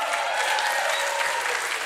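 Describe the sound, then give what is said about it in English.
An audience claps steadily, a dense, even wash of many hands applauding at a fairly loud, constant level for the whole stretch, with no voices standing out. “Two people didn't clap.”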